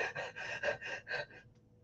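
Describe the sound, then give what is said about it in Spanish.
A person demonstrates the rapid, gasping breathing of someone stressed, anxious or running: six or seven quick, breathy pulses in a steady rhythm, moderately loud, with no talking. “Si tú estás estresado, estás angustiado o estás corriendo, ¿cómo respiras?”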